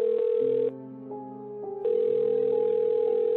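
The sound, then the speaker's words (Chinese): A steady, buzzy telephone dial tone hums without a break as someone phones the homeowner from a toilet, with slight shifts in pitch and a quieter stretch in the middle before it swells back to full loudness. No one speaks. “最终他受不了了，走到厕所打电话给男主人。”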